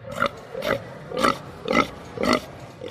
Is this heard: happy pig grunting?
yes